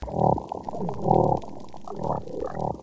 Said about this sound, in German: Das sind Unterwassertöne von einem Korallenriff in Indonesien. Da ist zum Beispiel das Zähneklappern von einem Clownfisch und das Schnurren von einer Riffbarschart.